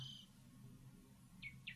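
Birds chirp a few times in short, high-pitched calls along a mountain path, with a brief note at the start and two quick downward chirps near the end, over a steady low ambient hum outdoors.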